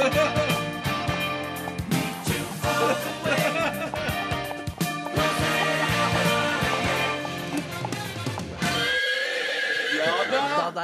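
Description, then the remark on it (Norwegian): Horse hooves clop along cobblestones beneath a dense wash of ringing church bells, and near the end a horse lets out a loud, wavering whinny. “Har også lagt til lyd av eh, hest uh, som går uh, på hest brostein.”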